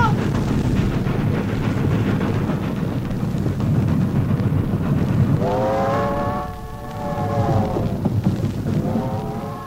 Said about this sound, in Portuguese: Mas o trem não vai parar. Eu sei tomar trem em movimento.